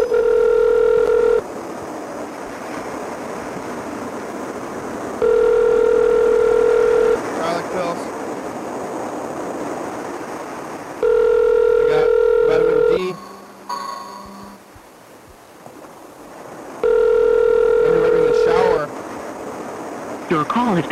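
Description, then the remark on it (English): A telephone call to the speaker's brother rings through the handset: a steady electronic ring tone repeats four times in two-second bursts, spaced evenly, with a hissy, rustling line noise filling the gaps between rings, before being forwarded to an automatic voice message. “forwarded to an automatic voice message.”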